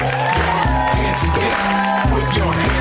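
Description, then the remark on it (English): An audience at the UCB claps and cheers steadily for host Cameron Esposito beneath loud, upbeat music with a thumping bass line, the crowd noise forming a dense, continuous wash rather than distinct individual claps. “Please shut off your cell phones and please put your hands together for your host, Cameron Esposito.”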